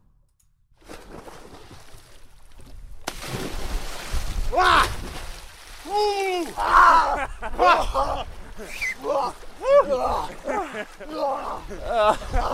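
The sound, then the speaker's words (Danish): Steady rushing water noise with occasional splashy bursts, while people gasp, exclaim and talk loudly in Danish over it as they climb down slippery steps into cold water. “Men øh, først, så skal de i vandet.”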